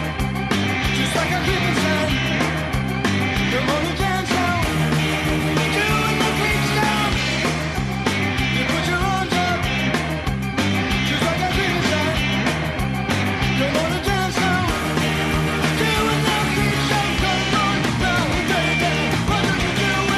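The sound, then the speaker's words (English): Loud, driving 1960s dance song with a wild, prominent organ, minimal lyrics, and driving bass and guitar over a steady beat, playing continuously at full volume throughout. “so you can hear like the crazy organ and the sort of minimal lyrics and then the sort of driving, you know, bass and guitar in there.”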